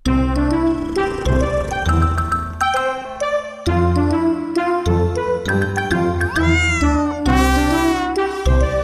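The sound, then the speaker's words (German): A tomcat meows loudly and insistently, a string of drawn-out, wavering cries, with a faint tinkling in the background and no talking. “Machst du jetzt so lange. Kater.”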